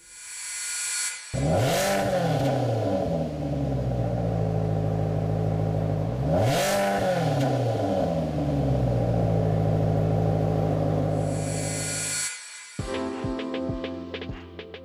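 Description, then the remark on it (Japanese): A Maserati Quattroporte Sport GTS, the Italian four-door sedan's top model with uprated engine output, starts and idles loudly, then revs twice in sharp sweeping bursts before settling back to a steady rumble; near the end it cuts off and a clattering, ticking sound follows. “本日はマセラティクワトロポルテスポーツ GTS”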